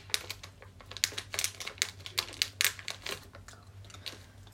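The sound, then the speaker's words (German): Crunchy dog food being chewed in a taste test, a quick irregular series of sharp, dry crunches with no talking, over a steady low hum. “Hundefutter.”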